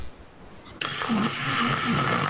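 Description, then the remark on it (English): A person imitates snoring 'in Irish' with their voice, producing a sudden loud, raspy rattling breath that begins abruptly and rumbles on, with no other talking. “what does snores in Irish sound like?”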